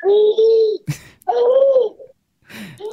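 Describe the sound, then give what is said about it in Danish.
A baby girl babbles in several drawn-out, high-pitched vocal bursts with short breathy gasps between them, fairly loud, with no adult talking. “Ej, jeg tror altså, jeg vil lade dig have en hyggelig morgen med din baby”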